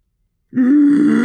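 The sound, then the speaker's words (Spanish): A person's voice imitates a howler monkey's howl: a single loud, low, droning vocal tone that starts abruptly after a brief silence and holds steady to the end. “hacen así los monos aulladores y se escuchan lejísimo.”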